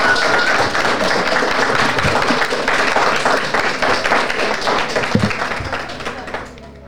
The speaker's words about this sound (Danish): og give en hånd. Tak. tak.